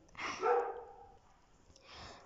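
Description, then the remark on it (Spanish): Dogs bark: one drawn-out, harmonic bark followed by a softer second bark near the end, with quiet background between them and no talking. “Justo los perritos están ladrando.”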